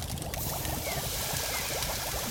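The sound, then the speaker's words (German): Rice pours into a paella pan with a steady, granular hiss that stays continuous for a couple of seconds, with no one talking. “Der Reis wird bei streng katholischen Köchen gerne in Form eines Kreuzes in die Pfanne gegeben.”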